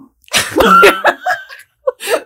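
A loud, drawn-out burp with a croaking, wavering tone, then a couple of shorter gulping belches after a brief pause, with no talking.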